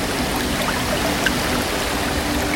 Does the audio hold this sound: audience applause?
no